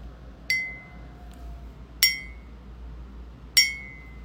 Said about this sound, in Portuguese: Então, vamos procurar nos aquietar e, como eu estou sem sino aqui, eu vou improvisar o, o som. Mas eu vou convidar esse, esse som acontecer três vezes e a gente vai dar início à nossa prática.